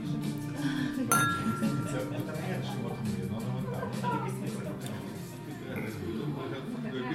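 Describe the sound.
Wine glasses clink once in a toast in a restaurant, a bright ring that hangs briefly before fading, with steady background music and low voices continuing underneath.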